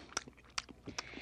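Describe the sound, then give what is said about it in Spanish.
Crunchy chewing of a flauta loaf of bread, with three sharp bite-like crackles spaced evenly over a bit more than a second, no talking. “Y las flautas de pan se comen.”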